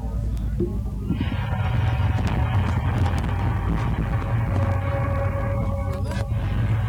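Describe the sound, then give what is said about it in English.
Loud, sustained trumpet-like blaring tones, a strange sound phenomenon heard in a town in Canada, swell in and hold for several seconds, layered over a heavy, constant low rumble, with an eerie echoing quality as if coming from the open sky. “It's known as the strange sound phenomenon.”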